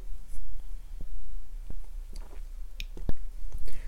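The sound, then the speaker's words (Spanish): Someone sips coffee, with soft slurping and wet mouth noises, a few small clicks and taps scattered throughout, over a low steady hum and no talking. “Es una idea que tengo, pero ya veré, sorbo”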